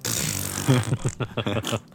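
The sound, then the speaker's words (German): A voice imitates a really loud fart heard on a train platform: a hissing, airy rush leads into a buzzy, sputtering blurt that breaks into several short pulses, lasting about a second. “dann stand ich am Gleis und auf einmal höre ich so einen richtig lauten Furz.”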